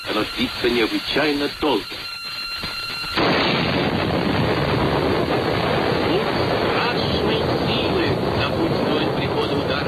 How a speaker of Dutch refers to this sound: De krachtigste waterstofbom die ooit is getest... Eh, dat was door de Russen en die heette de Tsar Bomba. En het klonk zo.